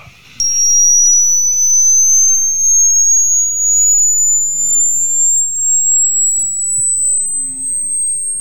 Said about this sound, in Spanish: Ahí estamos en 70 años de edad auditiva. Sigue aumentando la frecuencia.